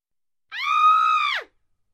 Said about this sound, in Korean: 하지만 문간에 발을 들여놓기가 무섭게 아이들이 비명을 질렀고 한 여자가 기절했다.